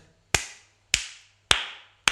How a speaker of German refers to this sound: Da muss ich ganz ehrlich mal klatschen für dich